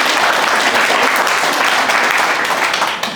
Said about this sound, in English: We clap, guys. Come on, come in